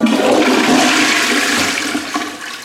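A toilet flushes loudly, a rushing gush of water that stays strong for a couple of seconds before starting to taper off. No voices are heard.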